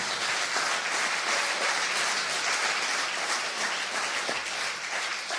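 A church audience applauds God steadily, a dense, even wash of many hands clapping at once, sustained and fairly loud throughout with no voices standing out.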